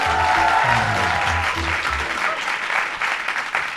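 A packed theater audience at Theater de Liefde in Haarlem bursts into loud, sustained applause with scattered cheers, the clapping dense and continuous throughout.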